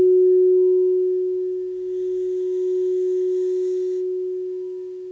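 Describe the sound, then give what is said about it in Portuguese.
A crystal singing bowl hums one pure, steady tone during a meditation, ringing on alone and gradually softening toward the end as the sound is brought down, with a faint shimmering overtone drifting in briefly midway. “Eu vou diminuindo o som do cristal.”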